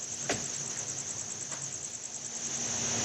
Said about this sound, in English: We visited Claire last fall at her 3,500 square foot indoor facility filled with rows and rows of breeding crickets.